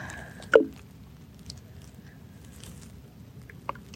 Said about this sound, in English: Greetings to you from the big lake, Kitchigami. Close to the water here, listening to the, the gurgles.